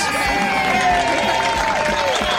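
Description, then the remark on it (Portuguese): A studio audience of a Brazilian program applauds and cheers loudly and steadily for a couple of seconds for the show's general director, Henry Júnior, dense clapping mixed with excited voices and a few high, wavering whistles. “O nosso querido Henry Júnior. Palmas!”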